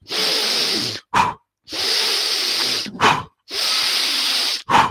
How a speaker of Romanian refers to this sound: Dacă vrem să trecem în activare simpatică, să turăm motorul, este nevoie să inhalăm mai puternic decât expirăm. Adică uite așa.